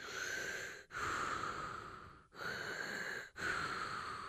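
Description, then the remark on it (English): A person makes heavy, rasping respirator-style breathing sounds, four long hissing inhales and exhales in a steady rhythm, like Darth Vader's mechanical breath, with no talking. “This sounds like Darth Vader.”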